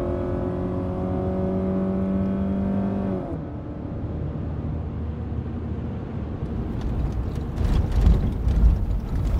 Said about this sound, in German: Der Wagen wird dich gleich überholen. Du fährst hinterher. Muss der so schnell fahren?